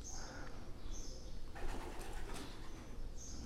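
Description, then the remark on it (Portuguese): Many pigeons coo softly together while a burst of wing flapping rustles through the middle, with higher bird calls recurring in the background; a busy, moderately quiet flock. “É muitos pássaros aqui.”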